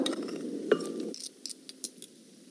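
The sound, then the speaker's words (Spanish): A muffled rustle and thud of tomatoes, half an onion, three garlic cloves and canned chipotle chiles being placed into a glass blender jar, followed by several light, sharp clinks against the glass, with no one talking. “En el vaso de la licuadora colocamos los jitomates, la mitad de la cebolla que ya partí en dos, los tres dientes de ajo, los chiles chipotle de lata,”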